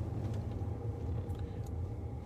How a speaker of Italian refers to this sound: quindi c'è poco traffico, quindi possiamo parlare.